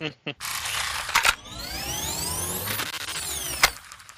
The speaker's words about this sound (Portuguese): Peraí que tá passando um moto. É que hoje é sexta-feira, todo mundo pede pizza. Aí ficam as motos de entregadores passando.